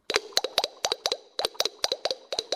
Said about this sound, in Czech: To jsou čákaras, to jsou jedny takový ty, jak vy tomu říkáte, kastaněty, ale strašně velké a je to specifikum pro jeden z těch nejmenších ostrovů La Gomera.